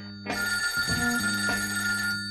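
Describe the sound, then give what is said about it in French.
A telephone bell rings loudly and steadily for about two seconds, a bright metallic jangle starting abruptly after a brief quiet moment, with no voices. “L'appel du good. Allô, j'écoute.”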